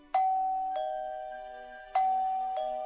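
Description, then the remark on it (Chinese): A doorbell chimes ding-dong twice, each pair a higher tone then a lower one, with clear ringing tones that decay slowly. No voices. “这时候有人按了门铃，是黑公鸡来按的。”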